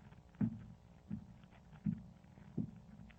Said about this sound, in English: Someone's coming up the stairs. Open the door, Watson. Very well, Holmes. I'm sure this is our man. His step sounds like the tread of a giant.